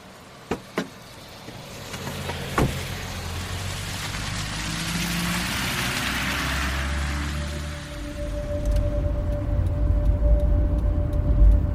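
A car engine runs steadily with a low rumble, after a few sharp knocks like a door shutting at the start as someone gets into the car; the engine note swells and deepens toward the end as if revving.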